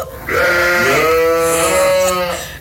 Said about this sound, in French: Elle est dans une bergerie entourée de moutons.